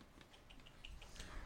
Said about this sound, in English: The puppies are fighting